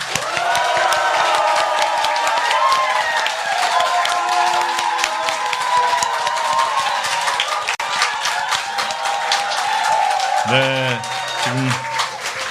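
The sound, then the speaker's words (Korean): An audience applauds and cheers steadily for about twelve seconds, dense clapping mixed with excited voices and whoops, loud, with a few louder shouts near the end, opening the live broadcast of Kookmin TV's current-affairs talk show on the day before the presidential election. “국민TV 시사 토크 와마이스 여러분의 힘찬 환호와 박수로 시작하겠습니다.”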